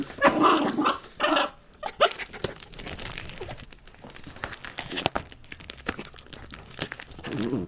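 A dog, Tillamook Cheddar from Brooklyn, growls and snarls in short bursts while attacking a canvas to paint with her paws and body, with rustling, scratching and jingling sounds as she paws and tugs at it, then continues in quieter scuffling.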